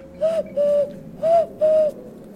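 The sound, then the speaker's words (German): A person imitates an owl's hoot as a secret signal to call for help: four short, breathy, tonal hoots in two quick pairs, clear and fairly loud, with no talking. “ganz heimlich die Eule machen, hier so.”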